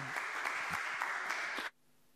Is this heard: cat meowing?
no